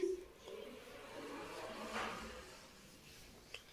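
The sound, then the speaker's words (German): Soft shuffling and movement lead up to a door being pushed shut, ending in a brief, light click. It is quiet, with no one speaking. “Ich muss mal wieder die Tür zumachen.”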